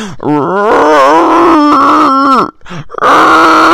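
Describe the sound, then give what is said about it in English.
A voice imitates a growling stomach with loud, wavering, low groans that warble up and down in pitch, broken by a brief pause before a final sustained rumbling groan. “My stomach's growling like a motherfucker.”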